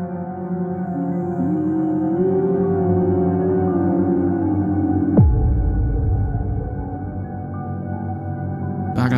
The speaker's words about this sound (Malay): Semasa saya menoleh ke belakang, tiba-tiba ada bunyi macam orang tengah haming.